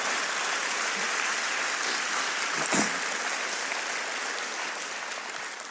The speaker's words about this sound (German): Und, äh, und können wir dem Team mal einen richtigen Applaus geben für jahrelange treue Einsatz.